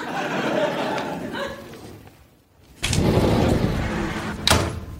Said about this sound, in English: oh, isn't that just like a haunted house? Doors moving around, preventing escape.